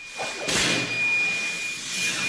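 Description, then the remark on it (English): A sudden loud burst of pressurized gas as an exploding smoke cannon hidden in a school ceiling is launched, followed by a steady, roaring hiss that keeps rushing on without letup as smoke fills the hallway, with no voices. “The school's secret weapon called hot zones, exploding smoke cannons hidden in the ceiling.”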